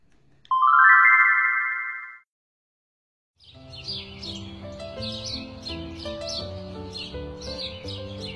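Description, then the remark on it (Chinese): Birds sing in trees in spring, in quick, high repeated chirps over a steady musical backing, following a bright sustained chime that rings at the start and then breaks off into a moment of silence. “春天来了，小草绿了，小鸟们在树上歌唱。”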